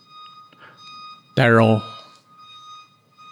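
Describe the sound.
A car's reversing alarm sounds as a steady, high-pitched electronic tone that runs through the whole clip, while a person speaks briefly and loudly over it.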